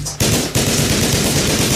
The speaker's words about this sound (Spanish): Salté por la ventana al tiempo que se desataba la balacera en las escaleras.